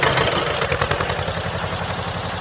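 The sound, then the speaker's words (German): A tractor engine idles with a steady, low chugging pulse and rattly mechanical clatter, holding loud and even throughout with no voices. “Tschüss und vielen Dank für die schöne Fahrt auf dem Traktor.”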